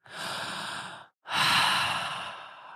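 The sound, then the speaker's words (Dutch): A man takes two long, breathy sniffs with his nose in someone's neck, separated by a brief pause, the second one louder and fuller. No one speaks. “Hij steekt zijn neus in je nek en hij snuift je geur op.”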